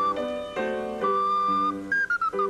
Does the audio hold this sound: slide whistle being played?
yes